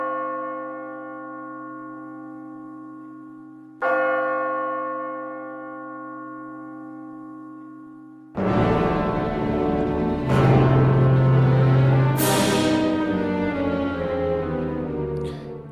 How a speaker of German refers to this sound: Ja, merke ich, es macht ziemlich wenig Sinn, einen Trailer einzuspielen von einem Stummfilm. Wobei, er hat schon so eine Wirkung, so die dramatischen Musikeinsätze, wo man sich jetzt irgendetwas dazu muss vorstellen muss, oder ja noch keine Ahnung.